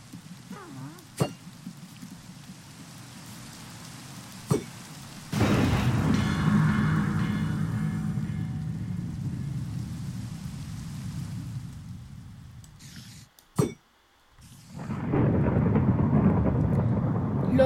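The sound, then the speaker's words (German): A video game thunderstorm: steady rain hisses while sharp cracks and rumbling booms of thunder break in, the downpour surging loud after a few seconds, briefly dropping out, then returning. No one speaks. “So, sie muss jetzt eigentlich hier jetzt anfangen zu gewittern.”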